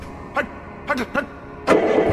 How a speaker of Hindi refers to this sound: और गाड़ी स्टार्ट करके चल दिए